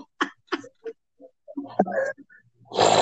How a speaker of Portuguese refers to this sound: Ai, gente, desculpa, esse espirro eu tava guardando aqui há um tempo.